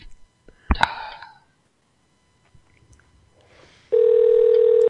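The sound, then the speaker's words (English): A few clicks and rustling handling noises from a cell phone, then a loud, steady call ringing tone starts near the end and continues unbroken. “it's ringing.”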